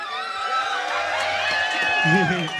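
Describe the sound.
A live crowd of a band's fans cheers and whoops loudly at a live music show, many voices overlapping in a sustained roar of shouts that fills the whole moment, with a few louder individual yells near the end.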